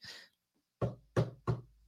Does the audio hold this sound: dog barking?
no